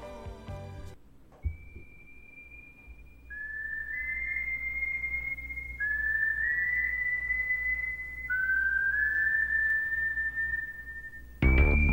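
A lone, eerie whistled melody from a German industrial rock song, long sustained notes sliding between pitches, carried over a low, dark droning background, clear and fairly loud, with a brief burst of sound at the very end.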